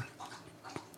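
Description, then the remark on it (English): A female dog laps up water in a quick, uneven rhythm of soft, wet slurps, fairly quiet, with no one talking. “That's the dog drinking.”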